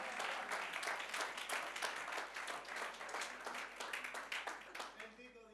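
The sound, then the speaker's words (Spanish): A church audience claps steadily for several seconds in applause to the Lord, dense overlapping applause from many hands, with a murmur of voices mixed underneath. “Un aplauso al Señor, hermano.”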